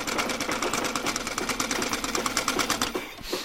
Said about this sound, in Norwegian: Men jeg sitter og strikker her og pusler, og så har jeg også tatt med meg symaskina mi.